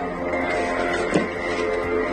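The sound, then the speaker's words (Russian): A drone flying at night over Bryansk, Russia, makes a steady, droning engine buzz like a moped, humming continuously overhead, fairly loud, with a brief sharper burst midway and no talking. “Это что за мопед летит?”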